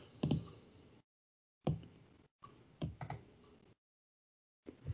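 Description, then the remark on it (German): Quiet, irregular clicking and tapping of keys on a computer keyboard as someone programs in Excel, coming in short bursts separated by silent gaps, with no voices present. “Du Excel-programmierender Mensch, während wir Podcast aufnehmen?”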